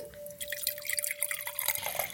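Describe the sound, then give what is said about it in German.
Mulled wine being poured into cups, a quiet splashing trickle with small drips, with no one speaking. “Ähm, dann gieße ich gerade mal den Glühwein ein.”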